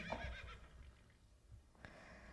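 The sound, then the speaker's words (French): A horse lets out a loud whinny that trails off into quieter snorting and shuffling, with a single sharp knock near the end. “Avec mon père, on a fini de préparer nos bagages et le roi nous a confié deux chevaux pour la première étape du voyage.”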